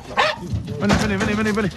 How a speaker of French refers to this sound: Alors, pour déloger les sangliers des petits bois où ils se sont réfugiés, on lâche les chiens.